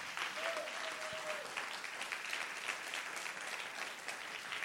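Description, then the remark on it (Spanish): An audience bursts into loud, sustained applause for Jesus, dense clapping filling the whole stretch at a steady level, with a faint tone briefly sounding early on. “Si usted lo cree, den un aplauso fuerte a Jesús.”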